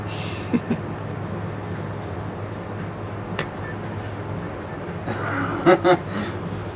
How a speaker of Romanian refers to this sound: Dar de ce se aude buritul ăsta? Nu se Nu se auzea până acum. E o mașină da, care... e ceva o mașină. Cred că construiesc unii și iau betonieră sau ceva.